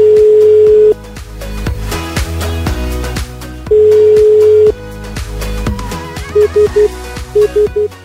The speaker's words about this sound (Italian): Suona libero.